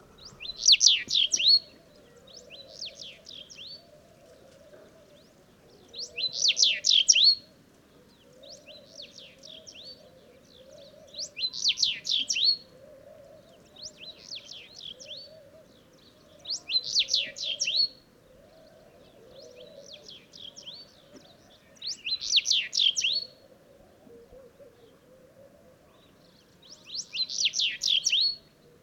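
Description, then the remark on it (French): A house bunting sings short, bright, jangling phrases, repeated roughly every five seconds at a steady pace, in the ruins of Ouadane in the Mauritanian Sahara, with a soft, low murmur running underneath throughout. “Rencontre aujourd'hui avec le bruyant du Sahara dans les ruines de Ouadane.”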